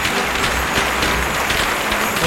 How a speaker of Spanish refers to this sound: Se lleva este pedazo de ovación que oyen Ateo, el toro de García Jiménez.